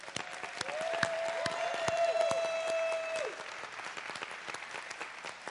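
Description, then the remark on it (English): A large audience claps steadily for several seconds as a huge thank you while a woman is brought up to the front, a dense wash of overlapping hand claps, with a sustained whistle-like tone ringing over the middle stretch before fading out. “But, but would you just say a huge thank you by clapping as I bring up”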